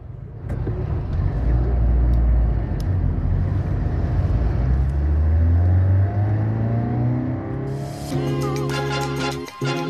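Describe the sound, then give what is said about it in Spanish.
A car engine rumbles steadily from inside the vehicle as it drives to the University of Lomé in Togo, rising in pitch as it accelerates, with a brief burst of brighter, rattling noise near the end. “en carro con Cally Dope, madrina del festival.”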